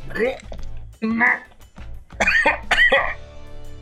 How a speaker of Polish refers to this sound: Przepraszam. Odbiło mu się, chrząknął, kaszlnął, otarł łezkę z oka.